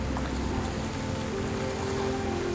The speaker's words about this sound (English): The camp smells of cedar smoke, and I finally step out of the car and, with my shirt, wipe the light rain fogging my glasses.